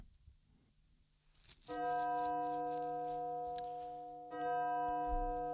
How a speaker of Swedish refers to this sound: Kanske den mest digitala kyrkklocka jag hört i hela mitt liv.